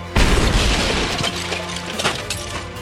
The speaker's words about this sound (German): Der Mahagonitisch klatscht samt dem Geschoss und dem Chihuahua an der opulenten Panzerglaswand an, bis es zu einer laut knallenden Explosion kommt.